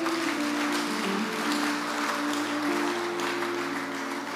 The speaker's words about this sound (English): Amen. Give the Lord a clap.